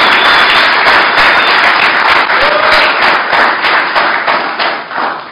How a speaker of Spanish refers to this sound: Dele palmas al Rey de Reyes, hermano.